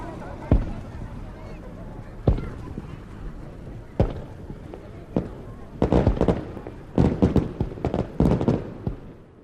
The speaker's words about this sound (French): Sauf que, bien sûr, étant en retard, on entendait déjà les premiers feux d'artifice.